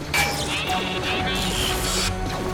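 A droid shorting out: a dense, crackling electrical fizz laced with warbling, sputtering tones, loud, sustained for a couple of seconds with no talking.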